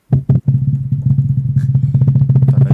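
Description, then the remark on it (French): A voice imitates a drum roll: two quick opening hits, then a steady, low, buzzing trill of rapid rolled pulses that keeps going without pause and grows slightly louder toward the end. “attention, euh, roulement de tambour, s'il vous plaît”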